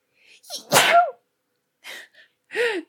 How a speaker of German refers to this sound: Entschuldigung. Gesundheit. Oh mein Gott. Und ähm, Jetzt ich, mein Niesen hat mich selber aus dem Konzept gebracht.